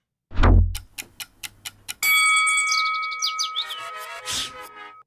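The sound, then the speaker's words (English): A countdown sound effect: a low thud, then about six evenly spaced clock ticks, ending in a bright sustained chime with short chirpy flourishes that rings out for a few seconds. No talking. “Five minutes on the clock. The clock starts when the first tweet goes up.”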